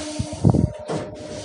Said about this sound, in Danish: nu er jeg altså med toget. Her er ikke nogen.